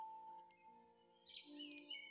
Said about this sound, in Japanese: なんかほっとする音楽をね、聞きたいなと思いまして、あの、鳥のさえずり、川のせせらぎというね、テーマの音楽を流してます。というのも、これね、タブレットから流してるんですけど